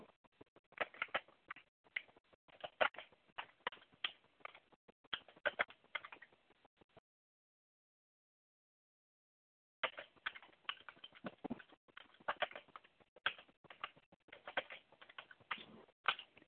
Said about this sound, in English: My laptop is down. I have to use the stupid desktop computer, and the keyboard I have is um, noisy.